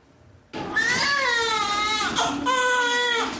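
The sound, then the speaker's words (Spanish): A newborn baby cries loudly and continuously in a delivery room, a high wavering wail that starts abruptly, dips briefly for a breath, then resumes with the same strained intensity. “El llanto prolongado que se escucha en una sala de parto es el sonido más esperado por una madre que está dando a luz.”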